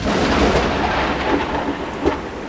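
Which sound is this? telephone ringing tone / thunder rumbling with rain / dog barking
thunder rumbling with rain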